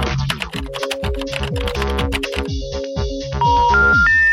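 Rapid computer keyboard typing clatters over a synthetic melodic phone hold tune, then the keystrokes stop halfway and the tune continues with a series of rising electronic beeps.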